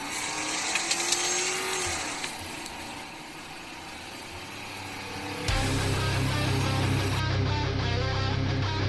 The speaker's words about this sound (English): Now sit back relax, and enjoy the orgasmic sound of a Crown Vic.